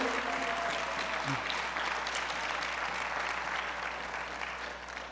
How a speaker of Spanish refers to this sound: ¿Alguien puede aplaudir al Señor por eso? Aleluya.